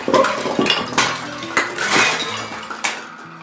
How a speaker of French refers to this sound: La leçon reprend, mais on entend soudain un grand fracas dans l'escalier.